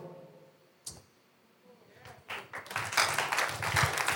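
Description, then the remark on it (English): A crowd at a sermon breaks into clapping, starting scattered after a single sharp tap and swelling into steady, dense applause by the end. “Those who are clapping have got why I came here.”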